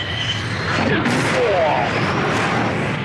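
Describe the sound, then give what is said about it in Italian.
A loud, continuous fighter jet engine roar in a movie trailer fills the whole stretch, dense, with brief whining pitch sweeps rising and falling partway through. “Mega jet, mega rumorozzo di sottofondo.”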